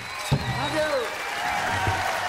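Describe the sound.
Steady audience applause at an unplugged concert, a dense wash of clapping with a few whistles and cheering voices rising over it, holding loud and even throughout.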